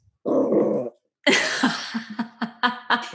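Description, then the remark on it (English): A small dog, Momo, a tiny black chihuahua, gives one short, gruff bark, followed after a brief pause by a stretch of breathy, rhythmic laughter. “She is a little tiny black chihuahua and she's the cutest.”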